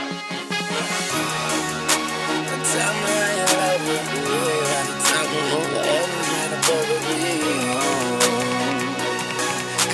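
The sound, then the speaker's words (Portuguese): A full music track plays loud throughout, with layered sustained melodic parts over a low bass and sharp percussive hits recurring every second or so. “Tá no Spotify, todas essas músicas que são tocadas no Iradex”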